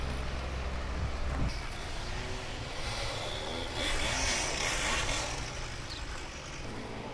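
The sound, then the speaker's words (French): A chainsaw drones steadily outdoors as two workers in yellow helmets in a green aerial lift prune a tree, its pitch wavering and revving slightly partway through, with a broad hiss of ambient noise around it and no one speaking. “Il y a un monsieur qui lit juste en dessous, pas du tout dérangé par le bruit de la tronçonneuse.”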